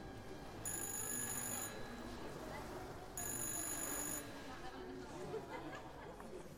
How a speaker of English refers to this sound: All the while, the phone continues to ring.